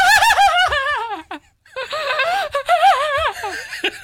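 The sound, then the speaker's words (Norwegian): Hysterical crying from the film The Exorcist: loud, high-pitched wavering wails and sobs in two frantic bursts separated by a brief gasping pause, with no other talk. “Eh, det var hysterisk eh, gråt som var nummer to, eller noe lignende. Et eh, hysterianfall.”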